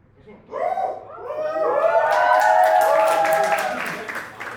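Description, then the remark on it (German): Audience applause builds as a burst of rapid clapping, mixed with loud whoops and cheering voices that start first and carry on over the steady clatter of hands. “Die Abwesenheit von Personen sorgt für Applaus.”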